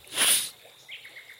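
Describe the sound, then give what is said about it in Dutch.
A short breathy whoosh gives way to crickets chirping, a quick, evenly spaced run of high, thin pulses, fairly soft and heard alone with no talking. “Krekels. Krekels.”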